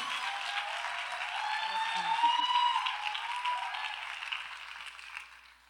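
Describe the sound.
An audience gives a loud round of applause for a female pastor who is about to speak. The clapping is steady for several seconds, a dense wash with a few voices calling out over it, swelling slightly midway before tapering off at the end.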